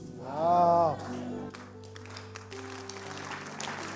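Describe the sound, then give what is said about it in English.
An audience at a sermon breaks into scattered clapping over a sustained organ-like chord, after a brief raised voice at the start. The applause stays steady and moderate to the end. “Let me add something else before you clap.”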